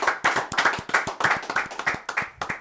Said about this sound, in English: So that was our point of our show. So can we clap it up one more time?